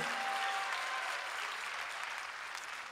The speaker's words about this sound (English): Come on, clap your hands and give praise to God.